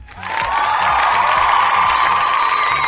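A loud burst of applause mixed with cheering and whoops from a crowd, sustained and dense throughout, with no one speaking over it.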